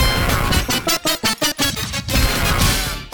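Two pieces of music play layered on top of each other, a chiptune-style melody from Sonic 3's Carnival Night Zone mixed with a pop track using the same rhythmic figures and notes, sharing punchy, evenly spaced chord stabs over a dense, loud backing.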